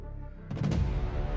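A sudden loud crash as items on a kitchen-goods shelf in a store, accidentally knocked by a hand, tumble onto the floor: several quick overlapping impacts followed by a low, rumbling tail. No voices.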